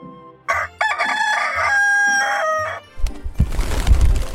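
A rooster named Maoqiu, kept in a fourth-floor home, gives its morning crow: one loud, drawn-out cock-a-doodle-doo lasting a couple of seconds, its strained pitch stepping through the call, then a rough burst of rustling noise follows.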